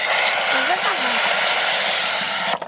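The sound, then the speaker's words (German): Water gushes from a push-button garden tap in a loud, steady hiss for over two seconds, then cuts off abruptly. A faint voice murmurs briefly underneath. “Hier ist für Wasser gedacht. Ja? Wenn man so drauf drückt,”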